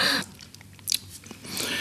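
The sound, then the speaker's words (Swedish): Chewing of a chocolate praline, with soft wet mouth sounds and a brief crisp crunch midway, then steady munching. No one speaks. “Ja, kan det vara en nötkräm med någon likör?”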